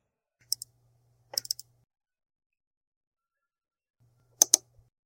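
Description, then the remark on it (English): Small mechanical clicks of a recorder being switched off and then back on, arriving in two short bursts a few seconds apart with a faint electrical hum between them. No one speaks. “I'm going to stop recording for the moment so I can compile a list of questions for Dr.”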